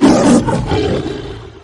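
A single deep, rumbling lion roar, loud and broad at the start, then gradually fading over under two seconds with no voices.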